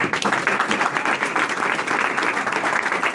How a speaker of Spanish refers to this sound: Un aplauso